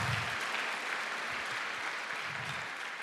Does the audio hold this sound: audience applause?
yes